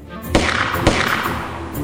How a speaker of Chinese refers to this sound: 同时，铁栅栏外发出了两声枪响。